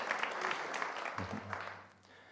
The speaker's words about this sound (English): Just give yourselves a big round of applause for being committing to being a part of that.